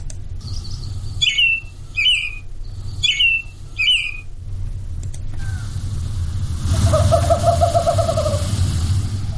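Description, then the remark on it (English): A western screech owl gives a quick series of short hoots that speed up like a bouncing ball. Other birds call earlier, and a steady low rumble runs underneath. “These are uh, this is a western screech owl.”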